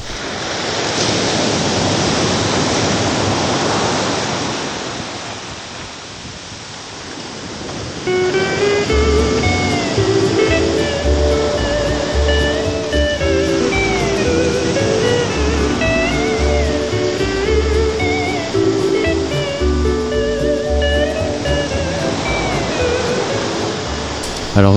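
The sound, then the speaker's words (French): Ocean waves roll and wash onto a beach in a steady, hissing roar, heard alone for several seconds before a bright tonal music bed comes in over the continuing surf. “on s'y croirait là. Hein. Ah là là, ça donne envie d'y retourner.”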